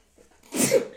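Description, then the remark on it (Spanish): A single sharp sneeze bursts out, preceded by a soft intake of breath and fading quickly, with no talking over it. “Salud.”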